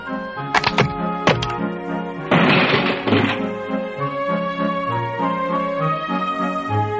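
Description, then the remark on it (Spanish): Several sharp wooden cracks snap in quick succession, then a louder, noisy crash as a small rocking chair with a heart carved in its backrest breaks into pieces under Goldilocks (Ricitos de Oro), a girl too heavy for it, all over steady background music. “Pero en realidad la niña pesaba demasiado para aquella mecedora tan pequeña que acabó quebrándose en pedazos.”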